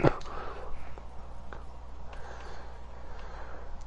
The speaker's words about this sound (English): hold on, hold on, shh, shh, shh. Cause I hear footsteps for sure.